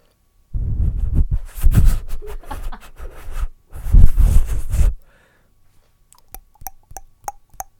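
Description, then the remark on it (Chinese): Several sharp wooden knocks in a quick, fairly even series, crisp and hollow-sounding, following a few seconds of loud rough rustling and thumping. No one speaks. “有没有听到木头撞击的声音？”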